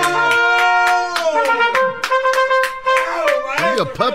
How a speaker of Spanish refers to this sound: Déjele aplaudo, pero hincado esta vez. ¡Bravo, maestro! Toma, ¡Para ti!